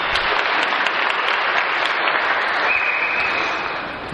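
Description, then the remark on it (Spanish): Sustained applause from a crowd at a religious celebration, clapping for the guardian angel: a dense, steady wash of clapping that holds loud and even for several seconds, with no voices heard over it. “Dale el aplauso al ángel de la guardia también para que nos siga protegiendo.”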